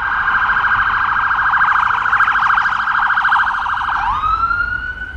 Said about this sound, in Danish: Fra de vilde klinter på Vossenæs pynt til asfaltjunglen i det centrale Aarhus. Vi har skiftet lyden af bølgebrus ud med en hissig summe af mange biler, motorcykler, knallerter, udrykningskøretøjer og mennesker på forbifarten.